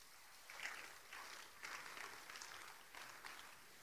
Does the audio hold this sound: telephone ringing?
no